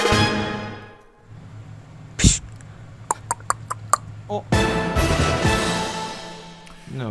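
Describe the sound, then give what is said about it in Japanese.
A voice imitates beer being poured, as in Sandwichman's Tomizawa's sushi-restaurant comedy routine, sent in as listener ASMR: a hummed tone, a sharp burst, a run of quick tongue clicks, then a long, loud fizzing hiss. “ビールっぽいなそうやねこれは、うん、サンドウィッチマンの富澤さんが、うん、寿司屋のネタでビールを注ぐ時の音を、うん、えー、”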